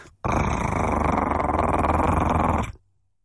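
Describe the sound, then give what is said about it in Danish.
A wolf's deep, rumbling growl holds steadily for about two and a half seconds, loud, with a rough, gritty texture before cutting off abruptly into silence. “og lige pludselig står der en stor ulv foran en. Hold kæft, hvor vil jeg blive bange. Og den begynder at sige”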